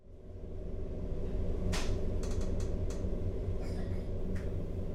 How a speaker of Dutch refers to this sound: We beginnen deze reportage van Discutafel Podcast in de trein, zoals je op de achtergrond hoort. We zijn op weg naar de historische tuinderij De Warmoes in Lent.